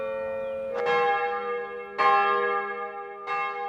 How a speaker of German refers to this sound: 12 Uhr. Mittagsgeläut der Klosterkirche St. Magnus in Bad Schussenried. Das Gotteshaus aus dem 13. Jahrhundert gehört nicht mehr der katholischen Kirche, sondern dem Land Baden-Württemberg.